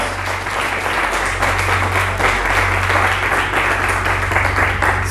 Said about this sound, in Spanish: ¿Cuántos dicen amén en esta mañana y pueden aplaudir de fuerte a nuestro Dios?